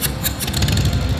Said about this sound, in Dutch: ploffen, want die rijdt op een Harley Road King Special. Ja, dat is deze.